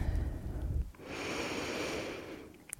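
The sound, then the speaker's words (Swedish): A single long, deep inhale is drawn in through the nose during a guided breathing exercise. It is clearly audible, with a brief breathy rustle at the start and no talking. “Ta ett djupare andetag in.”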